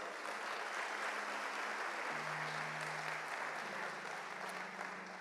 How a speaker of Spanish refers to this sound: ¿Cuántos le dan un aplauso al Señor por eso?